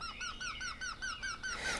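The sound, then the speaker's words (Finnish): A Eurasian wryneck, a yellowhammer-sized bird of the woodpecker family, calls with a rapid, even series of about eight loud, nasal, ringing notes, each slightly upward-inflected, alone with no talking. “Viikon luontoääni: Käenpiika”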